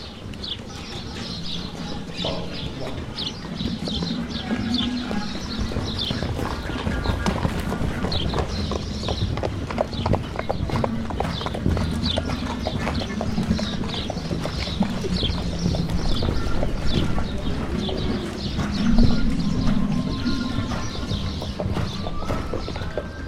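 Steady clip-clop of horse hooves on a hard road, a continuous rhythmic trot held throughout, with faint birdsong in the background and no talking.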